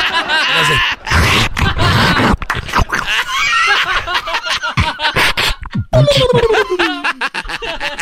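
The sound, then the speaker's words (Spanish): A loud vocal percussion routine: rapid mouth-made kicks, snares and clicks with guttural grunts and hissing bursts, a whistled, buzzing tone near the end, no spoken words. “Porque ese es un beatbox, dice. Ganó un concurso de beatbox.”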